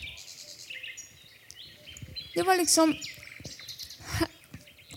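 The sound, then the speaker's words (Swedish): Birds chirp and twitter steadily in the background, a bright continuous chorus of small calls, while a person speaks over them in the foreground. “Blommorna doftade, fåglarna kvittrade, det fanns utsökt frukt.”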